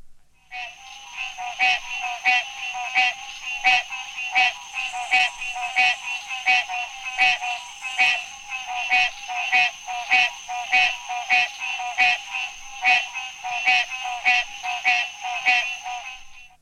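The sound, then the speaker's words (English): A green tree frog (Hyla cinerea) calls over and over in a steady, fast rhythm, each short nasal honk clear, with a busy chorus of other calls humming in the background. “you would readily recognize the voice of the green tree frog, Hyla cinerea.”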